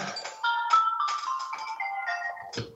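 A phone ringtone plays a short electronic melody of stepped, steady tones, fairly clear and continuous for a few seconds with no one talking over it.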